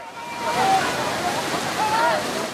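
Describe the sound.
Steady, fairly loud water splashing and sloshing as men with hooks and ropes storm into cold water to drag pilot whales, up to six metres long, onto the beach, with faint voices calling out beneath the churning noise.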